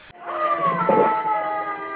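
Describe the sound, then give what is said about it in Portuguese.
A single drawn-out cat meow, its pitch sliding gradually downward over about a second and a half, fairly loud with no talking. “Outro gato!”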